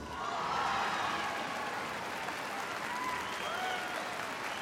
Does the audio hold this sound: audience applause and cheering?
yes